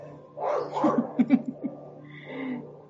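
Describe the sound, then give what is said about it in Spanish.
Two female dogs bark in a quick cluster of short, sharp yips, about half a dozen bursts in a row, with a low steady hum running underneath and no talking. “Oye, ahora tengo las perras. Ellas están tranquilas y de repente, pero bueno, todo eso forma parte”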